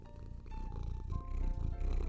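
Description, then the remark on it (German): A male cat sitting on a sofa purrs steadily and loudly into the microphone, a continuous low rumbling drone with faint tonal hums layered over it. “der hier schön laut ins Mikrofon schnurrt.”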